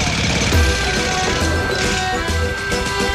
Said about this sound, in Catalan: És el que tenen les obres que fan soroll.